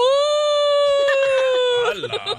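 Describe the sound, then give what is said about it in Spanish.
A person imitates a crying child with one long, steady, high-pitched wail held for about two seconds, then breaking into shaky, sobbing wobbles. It is fairly loud. “Ok, mira, un niñito pasaba por la calle llorando y llorando y llorando. ¿Cómo lloraba el niño?”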